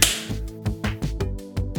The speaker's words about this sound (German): Jetzt habe ich euch alle klatschen gehört.